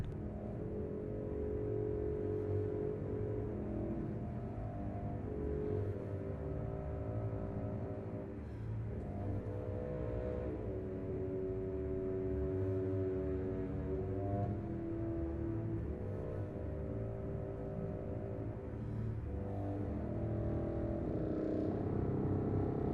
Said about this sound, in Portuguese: Na realidade, não é uma concha, ouvimos um contrafagote e começamos a ouvir uma ideia musical, um motivo que vamos encontrar ao longo de todo este concerto